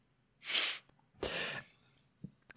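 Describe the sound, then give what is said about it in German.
A sharp, hissing intake of breath, taken by a speaker about to say something, followed moments later by a longer breathy rush of air, with no talking around it. “Ich hatte gerade Luft geholt, falls man das gehört hat, weil ich was sagen wollte”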